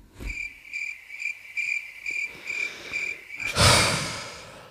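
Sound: crickets chirping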